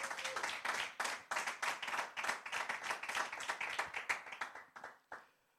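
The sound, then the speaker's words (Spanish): An audience claps together in quick, dense bursts of applause, many hands striking at once, holding steady for several seconds before tapering off and fading out. No one speaks. “Alguien le da un aplauso a la misericordia de Dios.”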